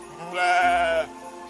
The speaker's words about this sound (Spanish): Poco después, el ángel más pequeño escuchó un balido en las cercanías.